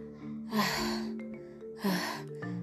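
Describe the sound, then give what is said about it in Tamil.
A voice imitates heavy panting, with two loud, breathy gasps about a second apart, each a rough rush of air with a voiced edge, acting out an orange seller out of breath after climbing on and off buses carrying a basket of oranges. “அப்படின்னு மூச்சு வாங்குது ஆரஞ்சு பழத்தை கூடையில் வேற வச்சிருக்காரு அந்த கூடையை வேற தூக்கணும்”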